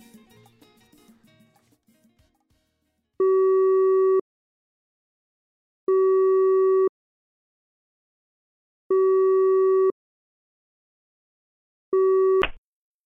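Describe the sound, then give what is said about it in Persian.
A telephone ringback tone while calling a Snapp driver: four steady electronic beeps, each about a second long with equal gaps between them, the last one cut short by a click. A brief burst of muffled noise comes first. “رندوم زنگ بزنیم به یه راننده اسنپ ببینیم کولرش روشنه خاموشه اوزاش چجوریه”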